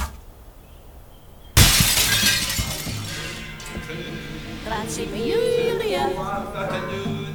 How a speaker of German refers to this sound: Einmal öffnete ich die Haustür aus Eichenholz und tschack! stak ein Pfeil im zersplitternden Flurspiegel.